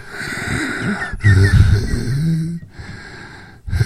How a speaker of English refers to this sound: Because I'm telling you, your fat's showing there, buddy. I can hear you breathing.